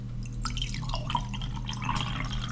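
Earl Grey tea is poured steadily into a cup, a trickling, splashing stream lasting a couple of seconds over a faint low background hum, with no talking.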